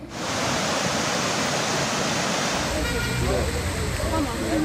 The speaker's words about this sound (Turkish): Diyarbakır'da önce sağanak yağmur ardından dolu yolları kapattı. Kulp ilçesine bağlı Aygün mahallesinde taşkınlar sebebiyle tarım arazilerini su bastı.